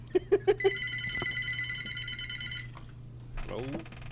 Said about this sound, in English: It's my phone. Incoming go ahead, you guys. I'm, I'm going to ignore it.